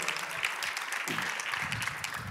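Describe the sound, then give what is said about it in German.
Steady audience applause, a dense wash of many hands clapping at a fairly even level throughout, with no voices rising above it, as a speaker comes onto the stage. “Applaus.”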